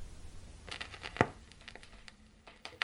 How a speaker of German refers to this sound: Ein Knistern, dann Stille. Die Platte war zu Ende.